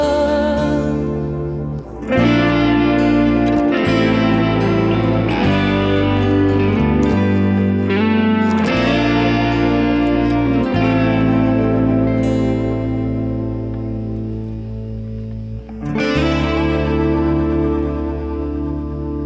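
A full-band pop song recording, loud and dense, led by guitar with steady chord changes and effects-laden, chorus-like shimmer; a brief lull near the start before the arrangement kicks in, no speech.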